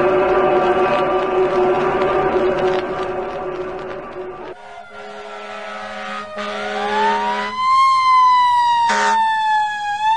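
fire engine siren

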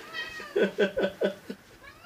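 cat meowing

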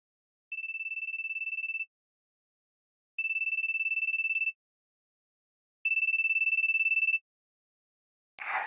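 telephone ringing

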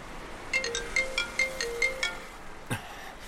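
phone ringtone ringing

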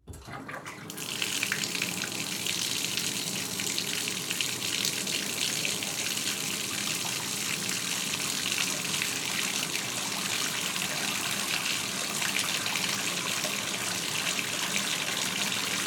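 running water

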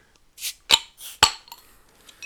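glass bottle being opened

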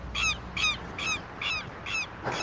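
seagull calling

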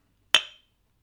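drinking glasses clinking

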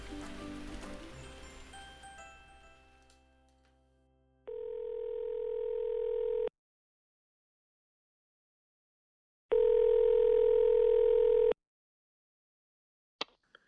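telephone ringing

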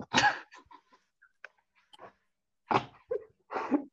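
sneeze

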